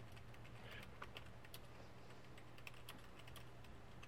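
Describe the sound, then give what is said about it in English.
Rapid, irregular clicking of keys on a computer keyboard, a steady stream of soft taps over a low background hum, with no talking. “Sorry. Okay. I was typing.”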